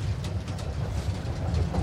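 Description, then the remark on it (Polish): A tram car rattles and jolts along its tracks, a steady low rumble with irregular clattering bumps throughout, moderately loud with no voices. “Boże, ale rzuca tym tramwajem.”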